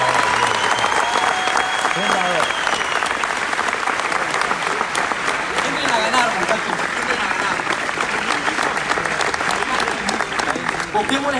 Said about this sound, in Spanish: Para quien pido muy, pero muy, pero muy fuerte aplauso para el diamante de la organización.